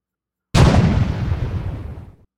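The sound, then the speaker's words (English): A single loud cannon blast erupts suddenly, its deep boom rolling out and decaying over about two seconds. It sounds powerful, with no voices. “The cannon fired again.”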